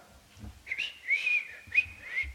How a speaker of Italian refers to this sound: si mise a fischiettare.